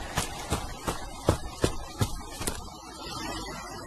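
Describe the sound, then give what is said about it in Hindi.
Quick footsteps pound along in a fast, even running rhythm, about seven sharp impacts over two and a half seconds, as a person runs toward a waiting bus with their shoes held in hand, then fading into soft background noise. “बस जूते पहनना ही बाकी था कि मेरी बस आ गई और ड्राइवर भैया दो तीन बार एक साथ हॉर्न बजाने लग गए मैंने जूतों को हाथ में पकड़ा और सीधा बस की ओर भागा”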